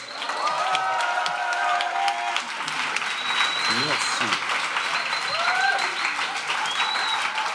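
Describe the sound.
A live theatre audience at the Le Quartz theatre in Brest, France, applauds steadily in a dense wash of clapping during a live radio recording at the Longueur d'onde festival, with whistles and cheers rising over it; a voice briefly speaks near the middle as the ovation carries on throughout.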